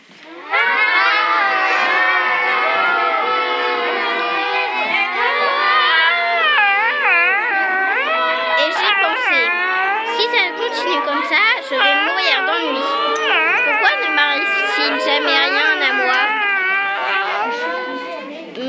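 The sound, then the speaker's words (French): A group of children's voices mimic people screaming as they fall into a ravine, overlapping high wails that swoop up and down in pitch, loud, sustained for nearly twenty seconds without letup. “Comme toujours, des gens distraits étaient tombés dedans et on les entendait hurler.”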